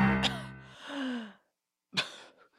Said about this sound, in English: Katy's hand broke the surface of the snow wall, followed by her head and a loud gasp for air.